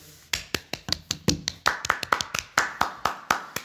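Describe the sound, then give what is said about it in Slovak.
A few people clap their hands in brisk, slightly uneven applause, each sharp clap distinct, about twenty claps over a few seconds with no talking. “Poprosím potlesk.”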